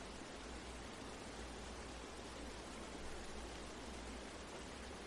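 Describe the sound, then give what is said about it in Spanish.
A steady, unbroken rush of flowing river water, even and continuous throughout with no pauses, forming a soft wash of background noise. No voices are present. “Puedes oír este río de fondo que relaja todo tu cuerpo.”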